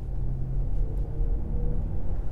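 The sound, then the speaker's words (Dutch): A soft, steady low hum of a BMW iX M60 electric car accelerating in its Personal (comfort) driving mode, heard from inside the cabin with a faint rising tone over a dull road rumble, no voices. “dan hoor je gewoon een beetje een zacht ja, gezoem op de achtergrond.”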